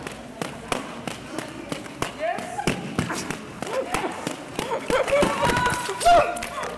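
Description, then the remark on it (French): A roller skater crashes onto the track amid a clatter of wheel thumps and scrapes, ending in a heavier thud near the end, with indistinct voices in the background. “C'est la chute du reportage et la chute en vrai dans le. Euh, sur le, sur le terrain.”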